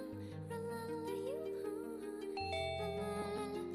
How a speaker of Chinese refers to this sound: 让我们来拨通这样的一个女孩子的电话，看看他会说点什么。电话正在拨通当中，让我们敬请期待一下吧。会是无法接通呢，还是您拨打的电话是空号呢，还是会是怎样的情况呢？